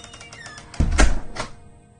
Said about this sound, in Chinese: 听到关门声，张志田还是有些怅然若失。